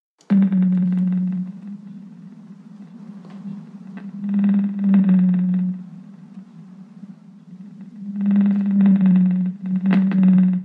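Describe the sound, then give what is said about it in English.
A blue whale's song: deep, droning tonal moans that swell in repeated long phrases, each several seconds, rising and falling over a steady low hum with no one talking. “This is the sound of a blue whale.”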